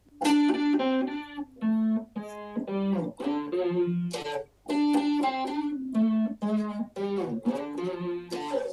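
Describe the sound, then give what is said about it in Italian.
A distorted electric guitar plays a chunky riff in D, loud, sustained chords and notes in short phrases separated by brief pauses, with a dark, gritty tone and no voices. “Non so se avete sentito il suono abbastanza distorto e un po' scuro.”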